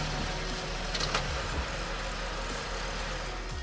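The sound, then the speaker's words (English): A steady, low engine rumble idles, a continuous hum with faint mechanical texture and no voices, as a car stops around 11 o'clock after hours of driving, on gravel and dirt ground surrounded by huge trees. “I'll stop the car over there.”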